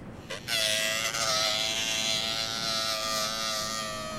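A steady, whining drill starts abruptly after a brief click and runs continuously, its high mechanical pitch holding nearly level and loud throughout, with no voices.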